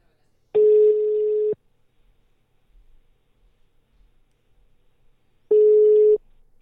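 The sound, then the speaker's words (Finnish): Two steady, single-pitched phone ringing tones, each lasting about a second and separated by a long silent pause, heard clearly through a line with no talking, as a second call is placed on an Apple phone to be merged with the first. “Laitat minut pitoon ja sitten toinen puhelu ja sitten yhdistää.”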